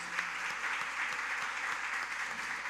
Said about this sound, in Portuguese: vamos aplaudir o Senhor Jesus, queridos. Glória a Deus.